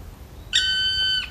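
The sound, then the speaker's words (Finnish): A black woodpecker, moving ever higher along a tree branch, gives one loud, drawn-out call, a steady high whistling note with a bright, harmonic edge that holds for under a second before cutting off, over faint low background rumble. “Palokärin ääni on kyllä voimakas ja se on sikäli helppo äänittää.”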